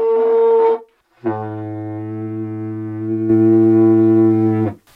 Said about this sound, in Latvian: Bet ļoti grūti spēlēt. Tā taura ir vairāk kā metru gara. Šī ir smaga, jā, viņa ir eh, grūti kas, turēt. Kas tas ir pa koku? Jā, tā ir kļava.